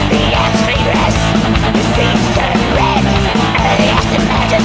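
Loud, dense Greek black metal plays continuously, with a wall of distorted guitars, rapid pounding drums and harsh, strained vocals cutting through the front of the mix.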